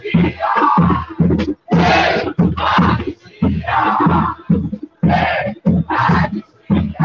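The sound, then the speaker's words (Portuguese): A protest crowd at Cinelândia in central Rio de Janeiro chants the slogan "sem anistia" (no amnesty) in loud, rhythmic bursts, many voices shouting together in repeated phrases with short pauses between them, energetic. “As pessoas estão cantando palavras de ordem aqui, que é sem anistia.”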